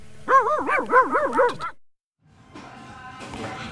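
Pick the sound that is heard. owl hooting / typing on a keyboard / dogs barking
dogs barking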